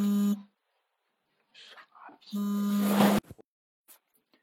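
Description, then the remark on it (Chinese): A phone ringing for an incoming call: two loud, steady, low buzzing tones, one short and one about a second long, with a brief murmur of voice between them. “哎，啊，不好意思啊，又一个电话刚才进来了。”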